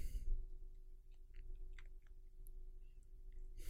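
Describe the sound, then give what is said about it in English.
Quiet, irregular cartoon crunching and chewing noises as a character swallows a steering wheel, a scatter of small crackly bites over a low steady hum, with no one talking. “Nah, his jaw just split in half because he just swallowed his steering wheel.”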